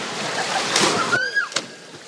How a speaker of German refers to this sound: springt ab, die Arme nach oben, die Beine wie ein Frosch zur Seite angewinkelt und dann ab ins Wasser.